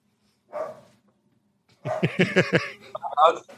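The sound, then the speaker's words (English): A dog barks: one short yelp, a brief pause, then a rapid, excited run of loud barks and yips that continues to the end. “My dog is now running away.”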